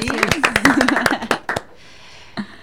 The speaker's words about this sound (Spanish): Dale un aplauso